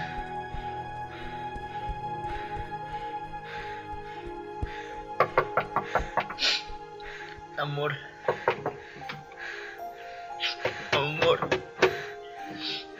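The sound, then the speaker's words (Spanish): Two bursts of sharp, rapid knocking on a bedroom door, fairly loud, separated by a pause, with a steady tonal hum lingering in the background. “en la puerta de tu habitación.”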